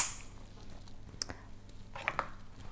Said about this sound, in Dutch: Ik hoor de douche. Oh, eh, mijn oudste, denk ik.